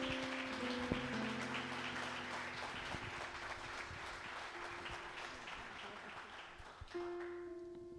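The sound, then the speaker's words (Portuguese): A church audience applauds steadily for several seconds to welcome a woman speaker and applaud Jesus Christ, dense clapping with a sustained organ or keyboard tone humming underneath and shifting near the end. “Vamos receber a serva do Senhor aplaudindo a Jesus Cristo.”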